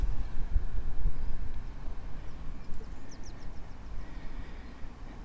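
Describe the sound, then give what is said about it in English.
Strong coastal wind buffets the microphone in a steady, rumbling low roar with gusty surges, while a few faint, high bird chirps flicker briefly midway through. “It's getting pretty windy on the coast now, so I'm not sure how much more recording I'll be able to do.”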